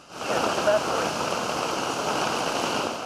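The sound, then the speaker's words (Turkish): A sudden heavy downpour in Istanbul roars steadily, turning a tunnel into a stream, a dense wash of rain hitting surfaces with rushing water underneath, loud and constant throughout with no pauses. “Bir anda bastıran kuvvetli sağanak tüneli dereye çevirdi.”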